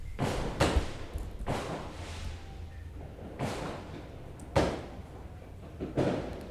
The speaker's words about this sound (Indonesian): asik kali ya ada background background kembang api